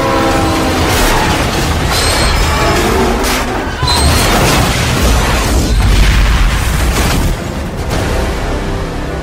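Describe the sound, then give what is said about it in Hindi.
A train rumbles loudly and steadily along the tracks shortly after leaving a station, with rattling, clattering wheels, while its horn blares over the din early on. The noise stays heavy throughout, with no voices. “वो भागते दौड़ते ट्रेन पे चढ़ा और अपनी सीट पर जाकर बैठ गया ट्रेन थोड़ी ही दूर गई थी कि अचानक”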